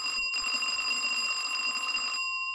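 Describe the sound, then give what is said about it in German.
An apartment doorbell rings in one sustained, buzzy electric tone with bright ringing overtones, lasting about two seconds before cutting off abruptly, heard alone with no talking. “Jeder der Monologe dieses Hörbuchs beginnt mit einer Wohnungsklingel.”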